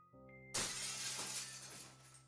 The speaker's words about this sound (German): Er stürzte gegen eine Wand, bevor er von ihr abprallte und in eine andere stürzte, wobei er das Glas zerschlug und zur Hälfte in das Gewächshaus krachte.